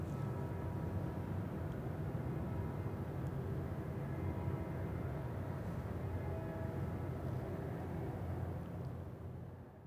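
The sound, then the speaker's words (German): A dense, steady roar of traffic around the church of Sankt Andreas, a continuous low rumble of passing vehicles with no breaks and no voices, easing slightly only at the very end. “Sankt Andreas, der Verkehr umbrauste.”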